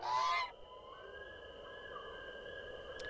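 A single loud, harsh goose honk at night, followed by a faint, steady high-pitched tone lingering in a quiet background.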